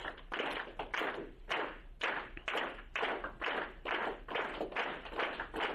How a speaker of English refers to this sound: Uh, I want you to focus on clapping at a steady pace, not the usual kind of applause, but give me steady claps, about you know one every half a second, something like that.